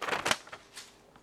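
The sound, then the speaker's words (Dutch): A book page being turned to the next page: a quick, crisp papery rustle in a few short bursts, fading into a softer whisper of paper, with no voices. “Volgende bladzijde, vers 20.”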